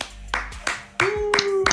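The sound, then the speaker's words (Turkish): Around five sharp hand claps at a slow, hesitant, evenly spaced pace, two people trying to clap together to mark a first anniversary, sparse and tentative and cut off rather than real applause, with a faint steady hum beneath the last few. “Ben alkışlamaya çalıştım, sen kestin.”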